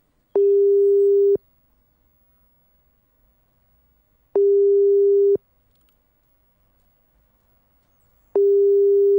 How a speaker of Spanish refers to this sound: ¿Ustedes escuchan el pu, pu, pu, el pu, pu, pu? Pu, pu, pu. Pulso.